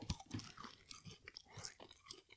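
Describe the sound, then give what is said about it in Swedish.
Wet chewing of a piece of fish, mouth sounds and smacking in an irregular rhythm over a couple of seconds, with no talking. “Jag måste tugga oh, mer.”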